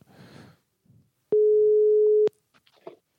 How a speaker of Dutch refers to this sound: Even kijken, we gaan het nummer even intypen. 2-0. Zo, daar gaan we. Hij gaat over. Horen jullie hem ook goed?